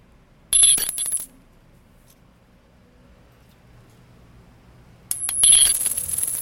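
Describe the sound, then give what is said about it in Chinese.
A five-dollar coin is dropped twice, each time landing with a bright metallic clink, then ringing and rattling as it settles. The two drops are separated by about four seconds of near silence, with no talking. “好，这个不是五块就是十块，那你猜这是几块？”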